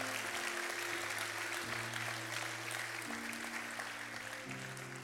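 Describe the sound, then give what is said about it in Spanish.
An audience claps steadily for about five seconds, a dense, even wash of applause, while sustained low organ-like chords shift underneath. “¿Alguien le puede dar un aplauso?”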